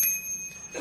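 A timer bell rings once with a bright, steady metallic tone that sustains through the brief moment, clear, with no voices around it, marking the end of a debater's 30-second answer time in a debate.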